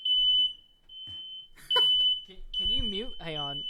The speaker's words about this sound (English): Oh, what's that? My fire alarm's going off. Hang on.